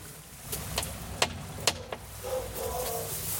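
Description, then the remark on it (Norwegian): Sharp metallic raps from a small brass fist door knocker, bought in France, on a front door with no doorbell: about five quick knocks in an uneven rhythm, followed by a soft rustling and a faint hum. “Og eh, det er heller ingen ringeklokke på døra her, men eh, det er en liten knyttneve i messing, så jeg seinere får vite at han eh, kjøpte i Frankrike.”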